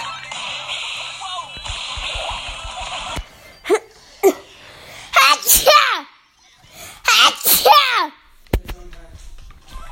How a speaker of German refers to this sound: Habe ich doch gesagt, ich habe noch Niesen. Ich hasse dieses Niesen.